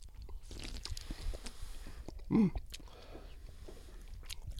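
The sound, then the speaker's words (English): Quiet sips and small wet mouth sounds of someone drinking, scattered over several seconds, with a brief murmured hum of approval partway through. “By the way, speaking of the humor, um, let's have a little sip of this first.”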